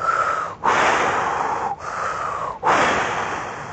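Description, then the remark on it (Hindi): A voice imitates strong wind with three long, loud breathy whooshes, each broad and hissing, separated by brief pauses, with no words spoken. “करके हवा ने चलना शुरू किया ज़ोर ज़ोर से जूम जूम जूम हवा चलने लगी”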